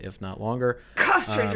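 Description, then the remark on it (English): A sudden, sharp sneeze bursts out between bits of conversation, loud, with people talking just before and right after it. “Uh, Gesundheit, I mean.”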